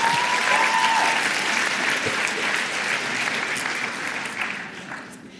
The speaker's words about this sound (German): Applaus